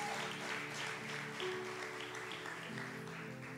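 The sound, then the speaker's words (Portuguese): At a church service, a crowd claps steadily for several seconds, applauding for Jesus, a dense, even patter of many hands, with sustained low musical tones, likely a keyboard, holding underneath. “Diga glória a Deus e dê um aplauso bem forte para Jesus.”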